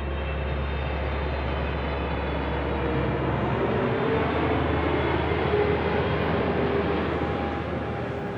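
A continuous, steady roar of aircraft engines outside the arrivals hall at LAX in Los Angeles, with a deep low rumble and faint whining tones running through it; no one speaks.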